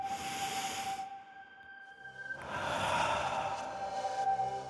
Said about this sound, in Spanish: por eso me concentro en la respiración. Inhalo. Exhalo. Por un minuto no vas a escuchar mi voz. Solo debes concentrarte en la respiración.